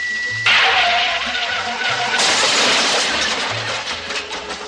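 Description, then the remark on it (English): A car's emergency brake brings a loud, harsh screech of skidding tires that bursts in and holds steady, a rough hiss with a faint squealing tone, swelling briefly louder midway before slowly easing off. “The emergency brake on your car.”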